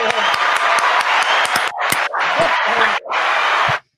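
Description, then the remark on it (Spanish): A burst of dense applause and clapping, loud and steady for almost four seconds with a couple of brief dips, then cutting off abruptly. “Un aplauso para ti.”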